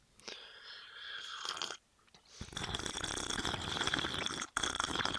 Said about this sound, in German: Oh, geil, Alter. Lass bitte in der Aufnahme. Damit wir direkt jeden Hörer verlieren. Echt so. Wobei ich finde, manche finden Schlürfen ja richtig schlimm. Ich finde es okay.